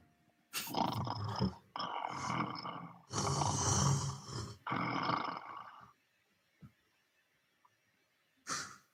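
A dog growls in four long, rumbling bursts, each lasting about a second, followed by quiet and a short final snarl.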